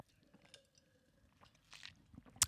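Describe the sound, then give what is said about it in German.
Someone takes a small sip of orange-passion fruit juice: quiet wet mouth sounds, a soft slurp, then a short sharper gulp near the end, with no talking. “und ich habe auch so noch so ein kleines Schlückchen, damit ich mich wenigstens mal dazu äußern kann.”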